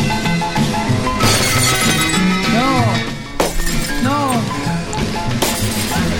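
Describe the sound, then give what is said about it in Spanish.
Three window glass panes shatter in three sharp crashes about two seconds apart, loud, over a dense, steady bed of tonal background sound. “Los tres, los tres vidrios de la ventana.”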